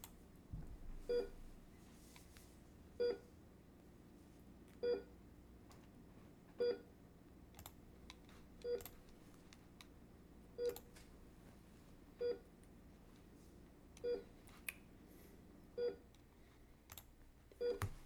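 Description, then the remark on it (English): A heart monitor in a hospital room beeps steadily, about ten short electronic tones spaced roughly two seconds apart, clear over a faint hum, with no one speaking. “That is the sound of the heart monitor.”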